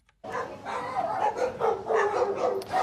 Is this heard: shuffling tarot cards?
no